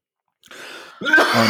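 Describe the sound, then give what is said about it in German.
A harsh cough bursts out after a brief raspy intake, rough and forceful, from someone who has choked on something, with no speech alongside. “Verschluckt.”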